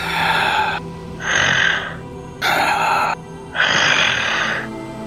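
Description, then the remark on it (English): Heavy, deep breathing right up against the microphone: four loud, airy breaths alternating in and out at a slow, steady pace, with no talking. “I love the I love the heavy breathing montage here, ASMR or whatever.”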